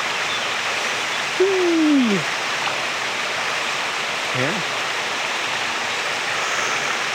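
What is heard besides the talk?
small waterfall flowing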